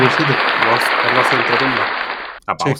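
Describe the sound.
Steady, dense applause rolls on for a couple of seconds, with voices talking underneath, then stops abruptly and a voice continues alone.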